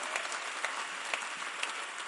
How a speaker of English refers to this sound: Give the Lord a mighty clap of him. Isn't it wonderful?